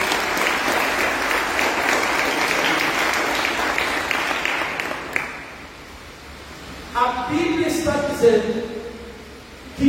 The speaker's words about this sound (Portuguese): Dá um aplauso ao Senhor Jesus.